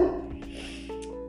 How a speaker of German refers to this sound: Ähm, nicht wundern, äh, das ist nur mein Hund, weil das ist neben der Haustür und der Welt halt.